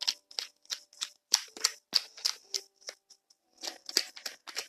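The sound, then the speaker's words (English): A deck of tarot cards being shuffled: crisp, papery snaps and slaps in quick, uneven bursts, a brief pause partway through, then more shuffling. No one speaks. “It's still just like let me stop shuffling for a second.”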